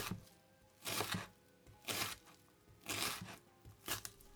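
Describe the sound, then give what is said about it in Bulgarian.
A knife slices a peeled, firm vegetable into half-moons in four steady, crunchy strokes about a second apart, each one crisp against a quiet background with no talking. “Обелвам и нарязвам на полумесеци първия зеленчук.”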